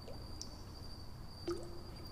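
Water drops fall and plink sparsely, echoing through an alley, a couple of distinct drips ringing out over a faint steady hum, quiet.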